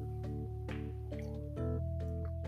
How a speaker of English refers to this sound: Let me just have a little sip here.